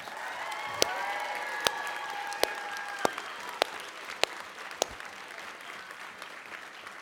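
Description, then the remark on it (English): A church audience applauds and cheers for those who stood up, a dense wash of clapping with sharper individual claps popping out and a few whoops rising early on, sustained for several seconds without speech. “Can we make some noise for those that stood up? Let's make some noise.”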